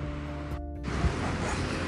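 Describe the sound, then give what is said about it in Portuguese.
Small ocean waves wash onto the beach at Perequê, where surfers are riding, with a steady, broad hiss of surf, briefly dipping before surging back louder, with a low rumble underneath and no voices. “Aqui tá maravilhoso, as valinhas entrando certinho.”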